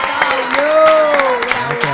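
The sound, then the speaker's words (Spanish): Steady applause from a small audience welcoming a guest to the table on a show, claps rattling along for about two seconds while a voice holds a long, rising and falling cheer over the clapping. “Así que le vamos a Bienvenido, viejo. un aplauso grande para”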